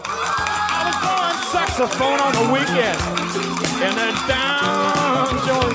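A large crowd roars and cheers continuously, with overlapping shouts and whoops over a steady wash of clapping, loud and sustained from start to finish as if in a packed stadium.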